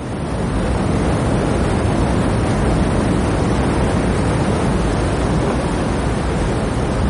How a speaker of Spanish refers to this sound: Trepa por las escarpadas y mojadas rocas. El agua cae con fuerza a su alrededor.